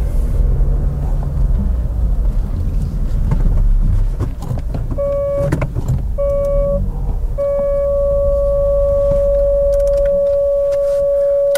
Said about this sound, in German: Wie gut, dass ich hier vorne und hinten Parksensoren habe. Wobei, die haben auch ein Eigenleben, die piepsen sogar dann noch weiter, wenn ich den Motor längst abgestellt habe.